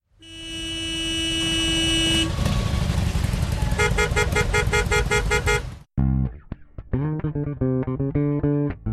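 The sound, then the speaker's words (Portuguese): A loud car horn blares in one long sustained blast over engine rumble, then breaks into a flurry of quick repeated honks and rhythmic toots, insistent, with no talking. “Sem mais delongas, buzina aí que a gente tá com pressa.”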